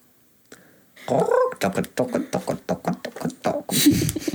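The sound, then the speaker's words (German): A person imitates pigeon cooing, a rapid run of throaty, gurgling pulses about a dozen strong, ending in a breathy, hissing burst. “Und plötzlich klingen Tauben so? Nein, Tauben machen so.”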